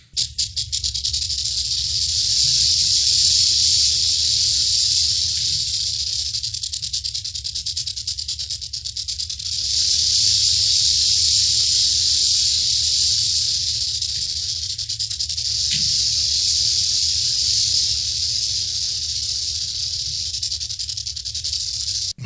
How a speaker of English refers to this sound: if you live out in the West, you know that sound. That's the sound of the Western Diamondback rattlesnake. It's about four to five feet long, eh, but it can get up to seven feet long. It is the second largest rattlesnake species